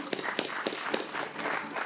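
A short burst of applause from a small group, a steady wash of overlapping hand claps with a few sharper individual claps standing out, moderately loud throughout.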